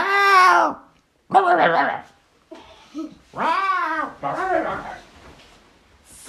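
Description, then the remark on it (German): A voice imitates an odd bird chirping: a handful of drawn-out, warbling calls with bending pitch, fairly loud, separated by short pauses. “Aber ein Vogel hat irgendwie komisch zwitschert.”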